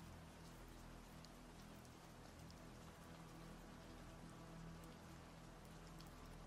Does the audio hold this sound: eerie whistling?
no